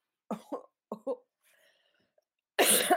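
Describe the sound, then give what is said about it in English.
Dry coughs from a person with an allergy come in two quick pairs, then a pause and a louder, harsher cough burst near the end. No one speaks. “I'm coughing.”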